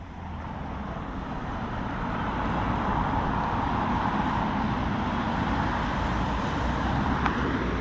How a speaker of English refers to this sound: Well, this is the sound of the Summerhill roundabout at the start of Sligo's Inner Relief Road. It's where the N4 dual carriageway the Sligo to Dublin Road begins or ends, depending on which way you're travelling.